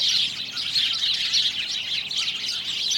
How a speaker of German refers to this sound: Aber die Vögel, vom Leben hingehauchte Leichtgewichte, die in ihrer fragilen Schönheit und quirligen Lebendigkeit das zeitlose Symbol für die Zartheit des Lebens sind und für seine Unbezwingbarkeit.